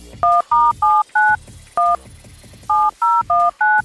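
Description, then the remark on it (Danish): A string of telephone keypad dialing tones as someone keys in a phone number: nine short two-pitched beeps in a quick, uneven rhythm with one longer pause partway through, clear with no talking. “Jeg taster telefonnummeret ind på ham her gutten, og så øh, mens jeg taster det ind, så lyder øh, hans telefonnummer sådan her.”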